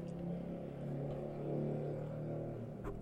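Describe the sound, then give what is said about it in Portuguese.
A motorcycle engine revs steadily outside, a droning mid-pitched roar that holds for a few seconds, with no one speaking. “Beleza, moto?”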